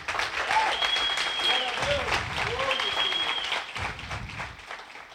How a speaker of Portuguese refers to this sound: Eis aqui, Jesus, o que eu tenho em minhas mãos. Você pode aplaudir ele por isso?